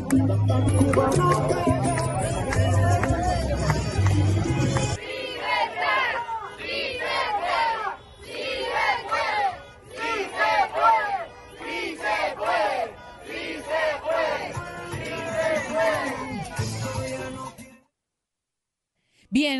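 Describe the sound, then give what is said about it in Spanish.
A crowd at a street demonstration in South Florida, on an afternoon, chants and shouts in loud, rhythmic bursts, with many voices rising together and overlapping cheers, before the sound cuts off abruptly near the end. “Allí escuchábamos parte del ambiente y de lo que se vivió en la tarde de ayer en el sur de la Florida.”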